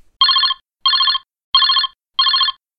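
A telephone rings in four short, evenly spaced bursts, each a bright trilling electronic tone. It is loud and close, with silence between rings and no voices.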